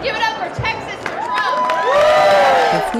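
A crowd cheers loudly, with high whoops and shouting voices rising over a steady roar of excited noise, swelling stronger toward the end.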